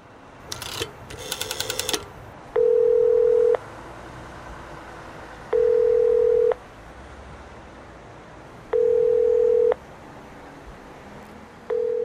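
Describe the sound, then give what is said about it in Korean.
An old-style rotary-dial public payphone on a cold day: the dial, turned with a finger, clicks and whirs briefly, then a steady electronic ringback tone sounds in regular one-second bursts, repeating several times as the call goes unanswered, with no voices. “버튼이 아니라 다이얼. 네, 손가락을 넣어서 다이얼을 돌리는 소리가 났었죠.”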